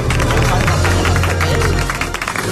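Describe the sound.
Studio audience applause, a dense, steady patter of many hands clapping that holds at an even, fairly loud level for a couple of seconds, with low voices underneath.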